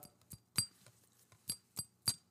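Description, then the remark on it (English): A glass bottle of Ogallala Bay Rum after-shaving cologne clinks several times in a loose, uneven rhythm, each tap bright and ringing, fairly quiet with no talking. “it is a glass bottle, which makes it really, really nice”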